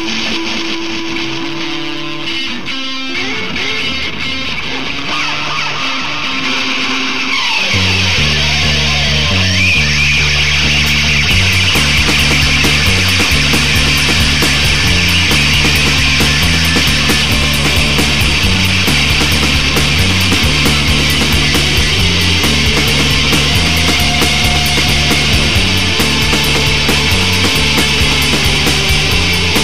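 A lo-fi rock recording made on a four-track recorder opens on a few seconds of hissy, scraping noise, then a heavy, looping bass riff kicks in and drives a dense, loud, distorted band sound with no singing.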